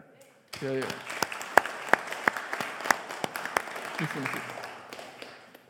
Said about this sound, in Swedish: Eh, så en stor applåd till er.